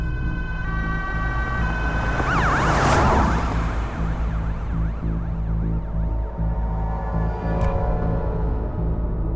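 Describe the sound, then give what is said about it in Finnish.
An ambulance siren wails in a rapid rising-and-falling pattern, loud, over the steady low rumble of an idling vehicle engine, with no one speaking; the ambulance has been called for an unconscious conscript. “Hän soittaa ambulanssin ja paikalle saapuneet ensihoitajat tutkivat WCstä löytyneen varusmiehen.”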